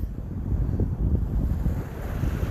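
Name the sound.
ocean waves and wind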